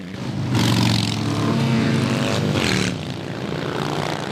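motorcycle parade engines roaring

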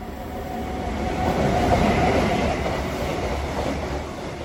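S-Bahn commuter train

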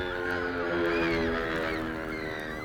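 wild geese honking

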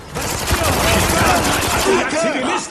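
video game gunfire

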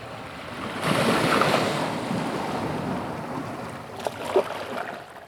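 sea waves

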